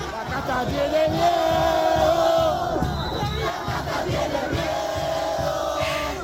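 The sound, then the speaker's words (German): A large crowd of Javier Millet's supporters at a rally in Argentina chants and cheers in unison, loud and continuous, with rhythmic shouted phrases rising and falling over a dense roar of voices. “Die Kaste hat Angst, johlen seine Anhänger.”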